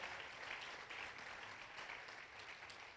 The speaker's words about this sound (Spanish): Que alguien aplauda nuevamente.